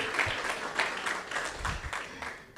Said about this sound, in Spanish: Le damos un aplauso al Señor. Miren, solo es para que no se me vaya a dormir.